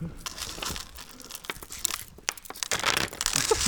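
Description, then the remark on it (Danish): Paper crinkling and rustling as a paper chain is put together, a steady run of crisp crackles and soft crunches with a few sharper snaps, fairly quiet, with no talking. “Så kan vi måske slutte af med bare lige at få lyden af, hvordan det lyder, når man laver sådan en, øh, en kæde her de sidste sekunder.”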